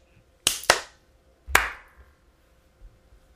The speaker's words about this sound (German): Ich glaube, wir äh, nehmen Warte, schon alle äh, auf. Äh. Genau. 3, 2, 1, Klatsch.